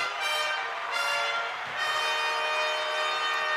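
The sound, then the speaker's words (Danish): A brassy fanfare plays alone, its bright, blaring horn chords held steady and loud for a few seconds with brief swells in between. “det er lige før, vi skal have en fanfare en gang til.”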